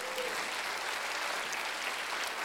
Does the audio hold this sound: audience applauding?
yes